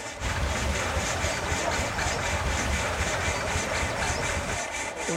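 A two-cylinder Deutz engine idles steadily while driving a sawmill, a loud, continuous rumbling chug with an even, regular pulse throughout and no voices.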